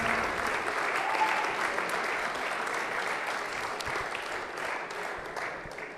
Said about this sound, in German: Also riesen Applaus für Dennis Kuttler.